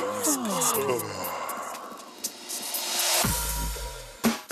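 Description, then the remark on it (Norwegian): A celebrity lets out a long, drawn-out yawn, the voice sliding up and then down in pitch before trailing into breathy air, fairly loud with no talking. “I denne radiokonkurransen her gjetter vi på hvilken kjendis det er som gjesper.”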